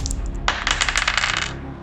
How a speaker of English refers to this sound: Let's find out that number right now 10d8. Okay, I've got five eight sided dice now, but I'll still need to roll in two batches. The first roll of 5d8